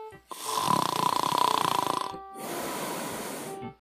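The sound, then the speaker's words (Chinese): A single loud snore, Daddy Mole's snoring in the children's picture-book story 'Daddy Mole's Snoring': a rattling, buzzing inhale with a steady nasal tone, then a brief pause and a long, breathy hissing exhale. No one speaks. “今天呀，我们继续来讲小熊宝宝情商绘本第四个故事《鼹鼠爸爸的鼾声》。”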